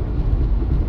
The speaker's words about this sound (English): Um, no, yeah, that's a train.